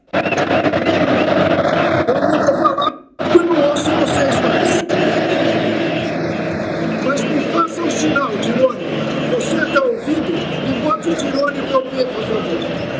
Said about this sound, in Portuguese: Agora, não, eu só vou fazer uma coisa, não sei se vocês vão pegar. Eu vou tirar o fone para vocês ouvirem o barulho da torcida argentina agora.